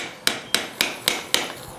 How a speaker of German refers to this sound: Und man sieht, ich mache das mit vorsichtigen Hammerschlägen. Das heißt, das ist keine Gewaltoperation, sondern das ist eigentlich schon eine feine Operation